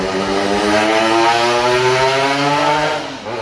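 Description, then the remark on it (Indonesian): A loud, buzzing motorcycle engine roars outdoors by a coffee shop, its harmonic whine holding steady and then dropping in pitch as it passes and fades slightly at the end. No one speaks. “maaf ya guys memang kita ada di outdoor kita ada di kopian biasa jadi suara wong wong wong wong wong motor itu”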